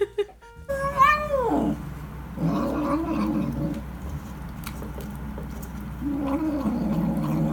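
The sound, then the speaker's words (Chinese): An orange cat lets out a rising, wailing yowl that falls away into a low, rumbling growl, followed by more sustained growling and a second drawn-out snarl, loud and unbroken throughout. “你这么凶啊！”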